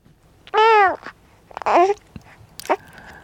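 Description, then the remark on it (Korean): A baby's babbling vocalizations come in a few short bursts, one clearly harmonic and slightly whiny, then fainter coos after pauses, fairly loud with no other voices. “예, 애기 옹알이 소리입니다.”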